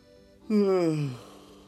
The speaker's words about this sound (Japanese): あくびが出てしまいました